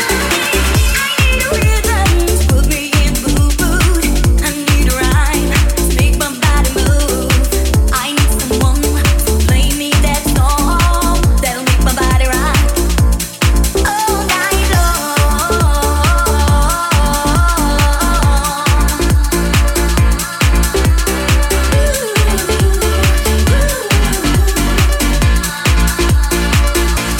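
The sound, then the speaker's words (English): House music plays loud and continuous, a steady thumping kick drum driving the beat under layered synth chords and melodic lines, with no voices. “house music, baby. Let's go.”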